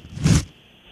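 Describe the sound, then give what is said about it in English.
A single quick, papery swish of a tissue being pulled from a tissue box, lasting only a fraction of a second before near silence. “It was a removing a tissue from a tissue box.”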